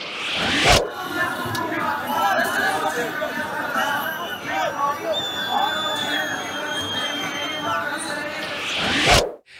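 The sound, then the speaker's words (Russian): A large crowd protesting COVID certificates in Sofia, Bulgaria, trying to break into the parliament building and held back by police, roars and chatters continuously, a dense babble of many voices with occasional shouts rising above the din, steady and loud throughout with faint whistles cutting through midway. “Вот, например, в столице Болгарии противники ковид-сертификатов устроили митинг и пытались прорваться в здание парламента.”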